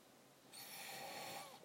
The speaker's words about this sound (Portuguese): A primeira pergunta pede qual é o som que faz quando assopramos dentro do copo. O som que faz é um som mais grave, que é esse aqui.